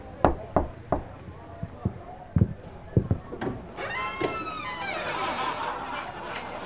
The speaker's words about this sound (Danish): Hov, hvad sker der mon derinde? Jeg prøver lige at banke på.